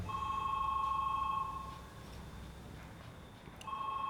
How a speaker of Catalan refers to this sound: Quan va tornar a sonar el telèfon vaig pensar que tornava a ser ella i vaig estar a punt de no contestar. Però vaig despenjar.